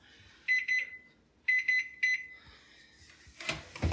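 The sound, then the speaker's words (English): A kitchen timer alarm goes off after about 14 minutes of baking: two clear bursts of rapid, high electronic beeps about a second apart, followed by a brief rustle and clatter. “Okay, the timer's just counting down now.”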